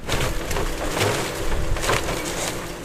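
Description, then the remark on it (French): A forwarder picks up cut logs and piles them by the roadside for a truck to collect, in a pine forest with holm oak undergrowth, with loud cracking and splintering wood over a steady low engine rumble, sharp bursts of snapping rising every second or so. “Et après, vous avez l'autre engin derrière, qui est euh, ce qu'on appelle un porteur, qui vient ramasser en fait ces billons et les mettre en tas bord de route où le, camion pourra venir les prendre en charge.”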